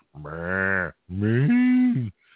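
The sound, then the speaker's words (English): A person's voice imitates a cow with two long, drawn-out moos, the second rising in pitch partway through, loud, with a short pause between them. “You come in, fly cattle. You know, you moo down the jet line.”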